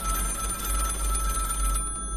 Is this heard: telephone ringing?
yes